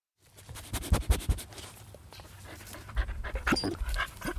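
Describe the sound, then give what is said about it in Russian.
A dog pants, quick rhythmic breaths continuing steadily, with faint shuffling or pattering alongside and no voices. “Собаки, они прям, прям рядышком.”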